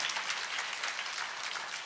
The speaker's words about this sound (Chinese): 愿意的拍手，把荣耀归给主，好不好？哎，大声的拍掌。